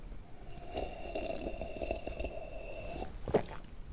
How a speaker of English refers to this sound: Uh, so solution to hot ass coffee. Slurp that shit